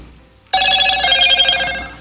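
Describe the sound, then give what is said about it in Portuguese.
A telephone rings abruptly after a brief quiet moment, a loud, bright electronic trill with stacked tones that holds steady for over a second, with no talking. “Desculpa, pessoal, o meu telefone aqui.”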